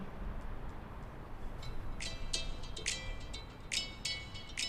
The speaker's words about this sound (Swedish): Eh, eh, om någon ringer mig så kommer det låta så här.